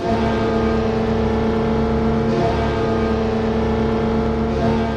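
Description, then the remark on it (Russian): A Carolina Hurricanes ice hockey goal celebration sound, heard by fans when the team scores: a loud, steady horn-like blare holds a constant tone for about five seconds over a dense, roaring wash of noise, with no talking. “А когда Каролина Харрикейнс забрасывает очередную шайбу, то болельщики слышат вот это.”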